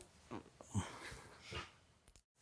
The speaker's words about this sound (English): I swear to you, I do not train my dog to bark when I say the word interruption. I promise. But it was very timely, wasn't it?